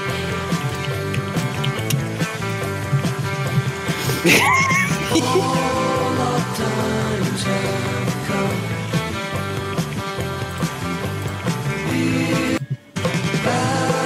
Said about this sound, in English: Right, there is a version of this song with the cowbell boosted.